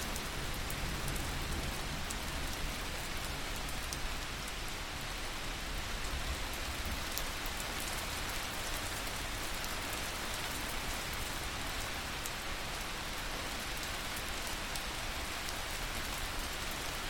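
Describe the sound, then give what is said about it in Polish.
Steady rain falls continuously, a dense hiss of drops pattering on a surface at an even, moderate level with no voices or breaks throughout. “powoli przeniesie swoją uwagę ze swojego ciała na dźwięki deszczu, nieprzerwanie utrzymując w swoim ciele stan nieruchomej, błogiej ciszy.”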